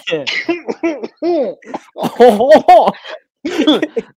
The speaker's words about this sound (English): I got the weird tickle in my throat, and I can't stop coughing.